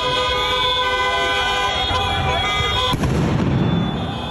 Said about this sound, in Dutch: Want op het Jonkbloedplein in Den Haag is het gisteravond onrustig geweest na de zegen van het Nederlands elftal. Groepen feestvierders stichten brand op straat, staken vuurwerk af en bekogelden agenten met stenen. Zo klonk het ongeveer.